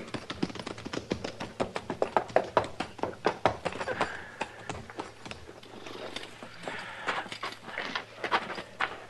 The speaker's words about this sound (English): Come on. put our horses in the barn here,